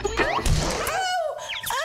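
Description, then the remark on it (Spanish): A cartoonish crash as a startled character slams into a pile of books and one falls directly on her head, with a couple of sharp thumps followed by high, warbling whistle-like chirps trailing off as she is knocked out, seeing birdies. “Del susto, Lucy se estrella con una pila de libros y uno de ellos le cae directamente en la cabeza, dejándola inconsciente y hasta viendo pajaritos.”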